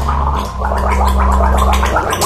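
A person gargles loudly and continuously up close, a wet, bubbling rattle with rhythmic surges over a steady low hum, with no talking.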